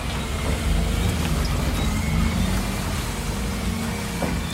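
A heavy excavator of nearly 25 tons at a landfill drones steadily and loudly as it carefully scrapes off soil layer by layer to reach the protective clay layer, about 30 cm thick, that seals the landfill. A low rumble and faint scraping and clanking run throughout, with no voices present.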